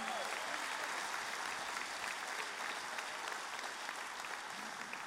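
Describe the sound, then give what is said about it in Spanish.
An audience at a church service applauds the Lord steadily, a dense wash of many hands clapping at once that holds at a strong, even level for several seconds without letting up. “En el nombre de Jesús, ahora dale el mejor aplauso que le hayas dado al Señor.”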